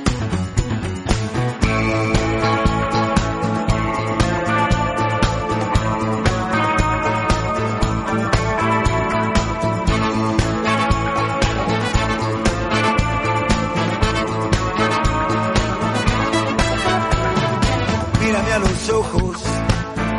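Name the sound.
band's song playing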